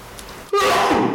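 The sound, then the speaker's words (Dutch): A single loud sneeze bursts out after a quiet moment, a sharp noisy blast with a voiced tone that slides downward as it fades. “Gezondheid”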